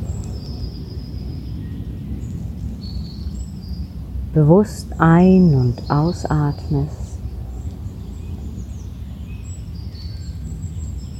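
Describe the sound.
Soft birdsong chirps steadily in a quiet forest while a calm voice speaks briefly in the middle, the chirping continuing faintly throughout.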